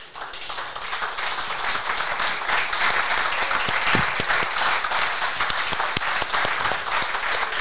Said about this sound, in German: aber wir haben das erste Mal Live-Publikum und das ist besonders gut, weil mein Rode Roadcaster, mein Radiogerät heute nicht richtig funktioniert und darum versuche ich jetzt mit Handzeichen einen Applaus einzuspielen.